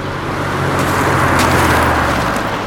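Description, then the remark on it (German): A strong surf wave crashes and splashes at a harbor, soaking people, a loud, roaring wash of water that surges to a peak midway and stays dense throughout, with no voices. “Oh Mann, jetzt sind wir klitschnass. Ja, das, das stimmt allerdings. Ähm, eine ziemlich starke Brandung heute.”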